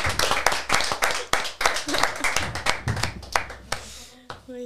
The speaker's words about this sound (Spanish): Aplauso, Canti.